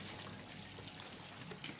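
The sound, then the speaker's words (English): Water pours and trickles steadily into homes in Mosul after a valve is turned to bring water to hundreds of homes, a continuous splashing flow with small bubbling bursts and no voices. “Uh, when you see that water fl- flowing inside each house.”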